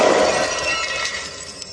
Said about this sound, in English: The Mesopotamian plastic storage container. You've destroyed it. I didn't know plastic could shatter like that.